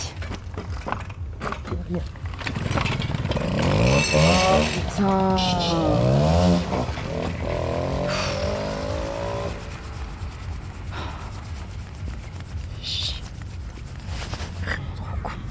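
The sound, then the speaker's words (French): A moped's small motor engine revs up with rising, whining pitch sweeps, then fades as the moped pulls away into a steady background rumble. A person exclaims briefly. “S'il te plaît, tu dégages avec ta mob.”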